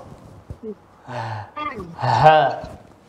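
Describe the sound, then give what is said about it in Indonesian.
A voice pushes out a few breathy, voiced "hah" exhalations from low in the chest during a breathing practice exercise, with the breath placed low, short bursts with uneven gaps, the last one longest and loudest. “Dia kita posisikan nafas tuh di bawah.”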